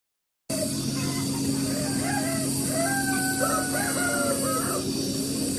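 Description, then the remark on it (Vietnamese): A crowd of chickens clucks and calls continuously while a rooster crows amid the flock, over a steady mechanical drone, at a chicken farm in Cẩm Đông commune, Cẩm Giàng district, Hải Dương province, Vietnam, that collects over 50,000 eggs a day; no talking. “trang trại gà của ông Đào Đức Thuận, xã Cẩm Đông, huyện Cẩm Giàng, tỉnh Hải Dương thu hơn 50.000 quả trứng”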